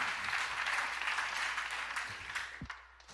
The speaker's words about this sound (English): Come on now, give Jesus a big hand clap. Lord bless you.